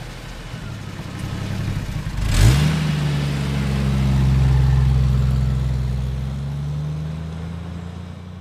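A car's combustion engine idles low, then revs sharply with a rising whine and holds a steady hum that swells and fades. Moderately loud, with no voices.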